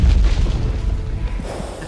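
A deep, heavy booming rumble of giant dinosaur footsteps, a sound effect, thudding loud and low, sustained for a couple of seconds with no voices over it.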